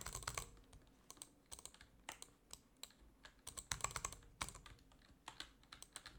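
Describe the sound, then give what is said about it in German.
Rapid, uneven bursts of crisp keyboard and mouse clicks while placing wooden blocks, clustering into quick flurries with brief pauses between them, with no voices. “Das Blöde ist nur, weil ich so schnell klicke, ähm, werden meistens die Holzblöcke noch oben drauf geblazed, weil ich zu schnell klicke.”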